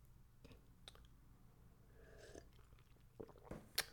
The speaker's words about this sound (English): Quick sip of water. Water break, boss. Don't mind me, boss.